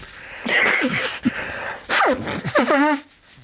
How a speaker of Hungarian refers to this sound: viszont én kifolyom az orrom.